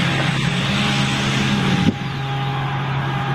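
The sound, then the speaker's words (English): A Scania V12 diesel truck engine runs steadily, a loud, dense rumbling drone that shifts slightly in pitch partway through, with no voices. “I believe, is a Scania V12 di- uh, diesel truck engine.”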